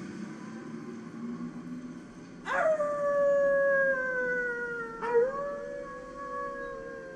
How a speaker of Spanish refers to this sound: Algo me sobresaltó. Un aullido de perros bajo y lastimero, allá en el fondo del valle oculto a mi vista. Se fue haciendo audible mientras las motas flotantes adoptaban nuevas formas con los aullidos y danzaban a la luz de la luna.